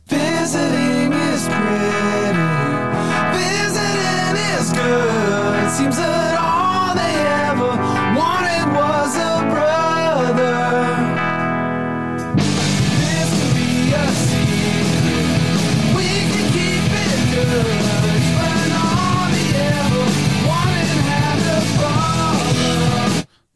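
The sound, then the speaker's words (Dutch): A loud rock song plays continuously, sung vocals with bending pitch over guitars and steady drums, shifting halfway into a denser, fuller full-band section that stays loud until it cuts off. “Ik zet er een muziekje bij.”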